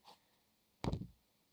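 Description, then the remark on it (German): A soft scratch is followed by a short, brushing rub on the cover surface of a paper notebook being handled. Nobody speaks, and it fades within a fraction of a second. “Ja, also es ist ein Notizbuch.”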